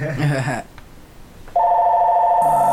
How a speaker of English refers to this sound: Oh, the phone's going off here. Let me turn this off real quick.